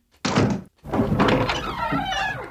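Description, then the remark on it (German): A door is pulled shut with a dull thunk as people step outside, amid a couple of seconds of rough shuffling and scraping noise. Nobody speaks. “Wir gehen jetzt mal kurz vor die Tür und die falschen Hasenohren brauchst du nicht mehr.”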